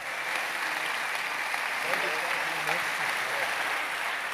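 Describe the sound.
Steady, dense applause from an audience welcoming a man onto the stage, a continuous wash of clapping that holds at an even level throughout, with faint voices mixed in underneath.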